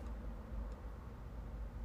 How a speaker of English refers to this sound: It's hot in this car. That's what I'm recording in. It's not hot outside, but it's hot in this car.